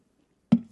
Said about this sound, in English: Now I'm going to take a, uh, a cherry uh, Coke Zero, Ugh, just of everything I like. But I'm going to um, take a sip of that